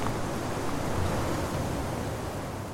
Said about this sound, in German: Oben auf der Festung pfeift der Wind.